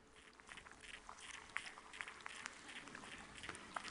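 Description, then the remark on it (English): Faint, continuous, very low static-like crackling and scratching as a creature absorbs a microphone into its belly and its tentacles probe the microphone's surface for something to eat, with irregular tiny clicks and rustles over a quiet background hiss. “immediately the critter began to absorb the microphone into its belly, and the tentacles were searching out the surface for something of nutritional value, the static like sounds that are very low that you're going to hear right now.”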